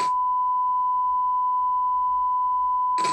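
A steady, clean electronic beep tone holds at one pitch for about three seconds, loud and unbroken, as a phone call is cut off, with brief clicks at each end.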